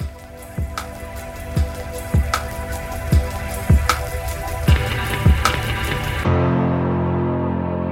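Steady rain patters under a run of regular water drips landing about twice a second, before the sound turns duller and muffled for the last couple of seconds.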